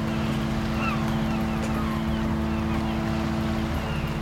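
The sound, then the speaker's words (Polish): A steady, rumbling boat engine drones on the open sea in the Gulf of Gdańsk along a ferry route, with a constant low hum and faint wash of water and wind around it, continuing without a break. “Słychać, słychać odgłosy, zbli y, zbliżamy się do morza.”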